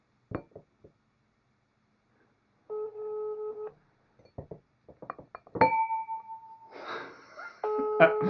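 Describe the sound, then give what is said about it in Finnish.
A phone call being placed to Porvoo: a few soft clicks, then steady electronic ringing tones that repeat with pauses between them, with a brief crackle of line noise near the end. “Tuosta sitten laitetaan Porvoon suuntaan soitto menemään, niin...”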